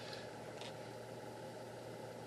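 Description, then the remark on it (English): A steady, low car engine drone with a broad road rumble, heard from inside the vehicle while driving through a clearing traffic jam in Pennsylvania, holding even and continuous throughout, with no voices. “all right, guys, traffic jam has cleared up a little bit here. We're starting to make a little bit more progress, but we are we still have a lot of Pennsylvania to go here.”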